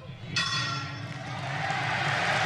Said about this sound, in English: And the bell has rung.